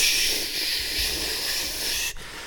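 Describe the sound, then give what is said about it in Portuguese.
A voice imitates AM radio static with a steady, breathy hiss that runs almost without pause, broken by a brief gap near the end before resuming. It is moderately loud. “Um gajo mete na AM e está chuva, está”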